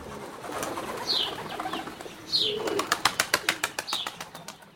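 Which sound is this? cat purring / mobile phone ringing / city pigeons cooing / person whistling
city pigeons cooing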